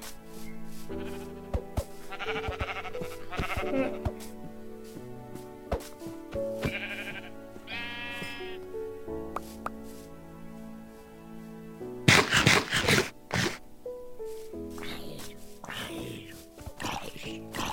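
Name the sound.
sheep bleating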